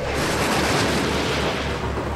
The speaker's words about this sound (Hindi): एक रात जोरों की बारिश हो रही थी सभी लोग अपने अपने घरों में दुबके हुए थे कि तभी आसमान से एक जोर की बिजली चमकती हुई गांव के एक बड़े से टीले पर आ गिरी